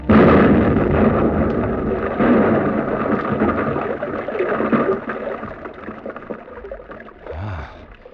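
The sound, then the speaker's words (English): An explosive charge set off in a mine tunnel by pressing the handle of a wired exploder: a loud, deep blast at the start that rolls into a long, rumbling roar, slowly fading over several seconds with no voices. “The two men disappeared up the gallery, and I was left alone to explode the charge.”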